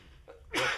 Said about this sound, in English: Bless you, bless you. Excuse me.